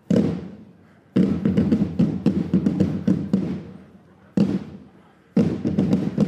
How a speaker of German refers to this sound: Und es ist auch toll, die zu sehen. Eigentlich jede Trommlergruppe, wenn sie dann mal da ist und was macht, ist der Hammer. Und gibt richtig Schützenfeeling. Man kann es, glaube ich, ganz gut hören.